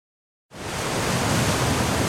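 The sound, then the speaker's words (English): After half a second of silence, a steady, dense roar of rushing water swells in and holds, broad and unbroken, with no voices: water pouring over Niagara Falls. “This ad is almost 3 million gallons long because it's exactly the same amount of time it takes for that much water to flow over the deck at Niagara Falls.”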